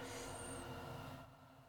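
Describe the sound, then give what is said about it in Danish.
A long train rolls past a home right beside the railway with a heavy, steady rumble and a thin high metallic whine that fades partway through; the noise eases slightly toward the end, with no voices. “Der kom sgu et tog. Der er kommet toget. og det er et langt, tog.”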